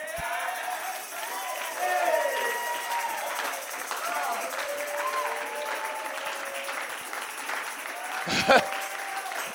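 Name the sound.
audience clapping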